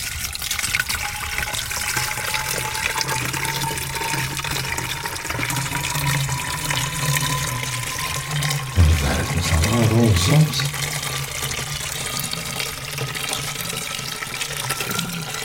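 In a radio drama, a pjolter (whisky and soda) is poured into a glass in one long, steady stream, its gurgling tone slowly rising in pitch as the glass fills, with a brief louder splash partway through.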